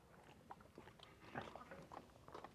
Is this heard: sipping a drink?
yes